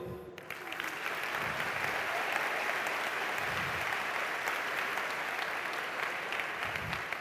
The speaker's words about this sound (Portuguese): Estão aplaudindo a palavra, não a mim.